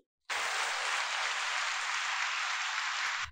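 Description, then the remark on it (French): An applause sound effect: a burst of crowd applause starts abruptly and holds steady at full volume for about three seconds, a dense wash of clapping with no voices, then cuts off sharply. “Et voici, c'était l'effet sonore de l'épisode.”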